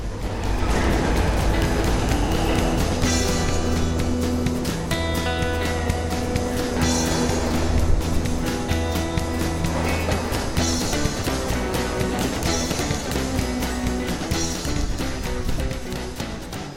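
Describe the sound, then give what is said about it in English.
A steady, loud mechanical rumble of a freight train rolling along at night, heard from inside an empty boxcar, with droning tones and periodic clanks recurring every couple of seconds throughout. “We watch the other train pass, and the signal ahead turns to white. Our train muscles on.”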